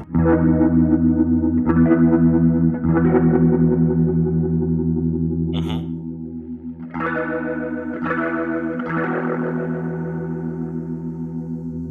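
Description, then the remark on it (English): Electric guitar chords ring out through a fast swirling rotary speaker effect, producing a quick warbling, chorus-like shimmer as the strummed chords sustain loudly with no one talking. “You hear it at the fast.”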